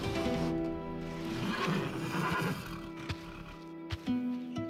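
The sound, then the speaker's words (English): A horse gives a long, wavering neigh in a stable, its tremulous whinny rising and fading over several seconds, with a few soft snorts and shuffling sounds afterward. “Rosa and I had gone to the stables and walked hand in hand among the finest horses I had ever seen”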